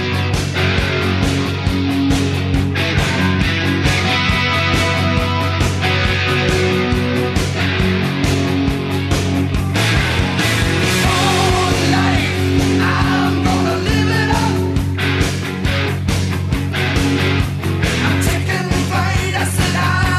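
A loud heavy metal song plays throughout, with driving, steady drum hits under a dense wall of distorted guitar. No one talks over it.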